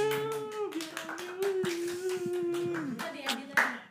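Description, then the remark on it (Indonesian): Steady, rapid hand clapping runs through the whole four seconds, its sharp claps layered over a sustained tonal voice or hum that holds one pitch before dropping near the end. “Weh, tepuk tangan dulu.”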